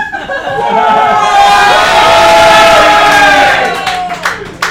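A large crowd roars and shouts together in a swelling wave of excited voices as shop doors open and the crowd is let in, loud and sustained for a few seconds before thinning out, with scattered claps near the end.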